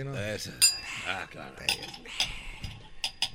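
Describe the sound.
Glasses and dishes clink in a cantina where a music group is playing, a handful of sharp, bright knocks scattered irregularly over a few seconds, mixed in with people talking.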